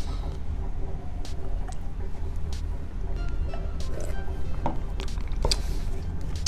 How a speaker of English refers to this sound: excuse me, let me take a sip of this shit.